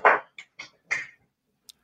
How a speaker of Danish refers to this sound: jeg beklager lige, hvis min hund han larmer lidt i baggrunden.